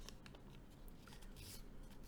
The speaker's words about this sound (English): also while i'm saying this if you hear any noises it's because i'm making paper cranes bro that's also a way i'm coping